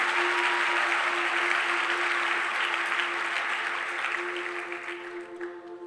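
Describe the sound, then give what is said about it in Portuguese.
An audience claps for the group who gave a demonstration, steadily in a dense wash of many hands, holding strong for several seconds before gradually thinning and fading toward the end, with a faint steady hum underneath. “Uma salva de palmas para a galera que fez nossa demonstração.”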